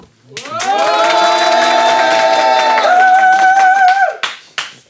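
A studio audience on the show Black Moon Test breaks into loud, sustained applause for a contestant, measured by an applause meter, with dense clapping and cheering voices over it, holding steady for about four seconds before fading into a few scattered final claps.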